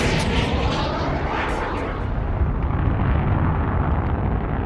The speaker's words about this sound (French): Vous entendez l'engin mugir férocement Ce n'est ni un avion au décollage, ni une Ford Mustang brûlant ses pneus sur l'asphalte, et encore moins une Harley Davidson au démarrage. Non, aujourd'hui on part direction l'espace,